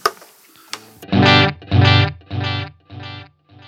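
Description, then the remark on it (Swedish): A guitar note is struck through a delay pedal, then its delayed echoes repeat four times, evenly spaced and gradually fading; the later repeats, though not the first, take on a slight pitch wobble. No one speaks. “Ja, man hör att det kommer lite svaj på, ja. på inte första repeaten, men sen.”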